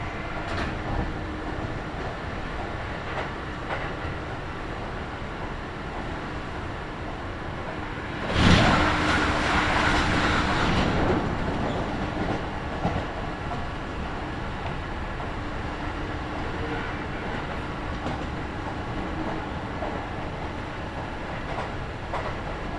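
A Kintetsu Nagoya Line local stopping train runs steadily on its rails between Shiohama and Shiroko with a continuous low rumble and rattle. A louder whooshing surge rises around the middle, then settles back into the even running noise. No one speaks.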